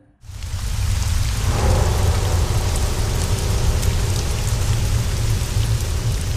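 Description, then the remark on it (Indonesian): Heavy rain pours down in a dense, steady roar, with a deep rolling rumble of thunder underneath. It starts almost immediately and stays loud and constant throughout, with no voices. “Kebetulan emang kan lagi hujan deras.”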